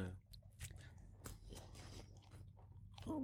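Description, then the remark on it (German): Chewing and biting into a Domino's pizza, with moist crunches and squishy mouth sounds repeating steadily over a few seconds, loud, with no one talking. “Also ich muss mal ganz kurz einwerfen, dass diese Domino's-Pizza, ich weiß nicht, was zur Hölle die verlernt haben, aber Pizza backen und Pizza machen gehört auf jeden Fall dazu.”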